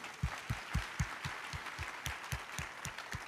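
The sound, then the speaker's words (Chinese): An audience claps together for Jesus in a steady, even rhythm, about four claps a second, each clap a soft thump over a constant hiss of crowd noise. No one speaks. “来给耶稣一个拍手，好不好？”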